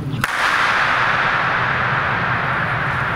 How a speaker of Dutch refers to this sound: 13 seconden de galm, de, de duurt 13 seconden.